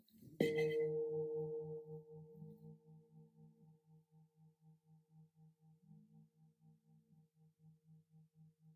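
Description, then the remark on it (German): A single gong strike, the first gong, with a sharp attack, then a long, shimmering hum whose low tones pulse and beat slowly as the ringing gradually fades, with no voices. “Und mit dem ersten Gong speichere ich diese Selbstliebe.”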